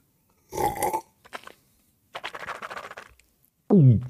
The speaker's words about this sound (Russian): И я рыгаю в стриме.